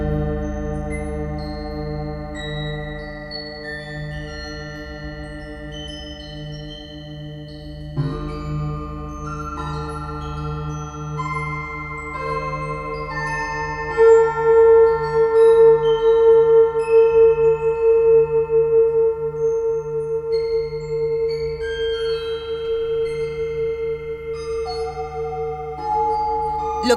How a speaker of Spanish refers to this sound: estamos escuchando es Nereida, este proyecto sonoro de Ariel Gusic, esta cápsula que se mete en el mar de Cortés, donde va recuperando los sonidos de las ballenas y transformándolos en otra cosa.